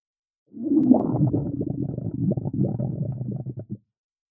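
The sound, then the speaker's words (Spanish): A long, gurgling stomach rumble from a very hungry person rolls on for about three seconds, low and bubbly with uneven churning pulses, fairly loud, with no voices over it. “Su estómago está haciendo ruido. … tiene mucha hambre.”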